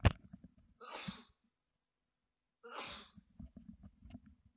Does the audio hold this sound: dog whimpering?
no